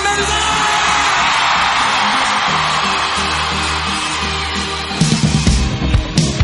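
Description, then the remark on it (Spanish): A large crowd roars with sustained shouting, whoops and cheering to welcome a guest joining the performer tonight, dense and loud throughout, swelling with sharper bursts of yelling near the end. “Por favor, recibimos con un fuerte grito a”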